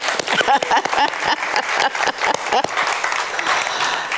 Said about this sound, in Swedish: Eh, jag vet ju att ni har varit gifta i hur många år? 58 år, det är värt en applåd.